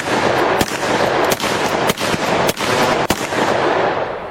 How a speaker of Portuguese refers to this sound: Ele começa a atirar, pá, pá, pá. Você escuta alguns tiros e o cara começa a correr.